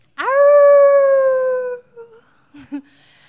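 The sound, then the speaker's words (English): A single long animal howl rings out loud from about 10 feet away in a dark forest, following a deep guttural sound, holding a steady tone that sags slightly in pitch before fading, followed by a couple of short, sharp yelps. “and then it starts howling.”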